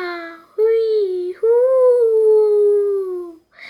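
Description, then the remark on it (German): A storyteller's voice imitates the eerie howling of the character Gertrud: a short wail, a brief rising cry, then a long, drawn-out tone slowly sliding downward, loud and sustained, with a soft breathy sound at the end. “Dann hörte sie plötzlich Gertrud heulen.”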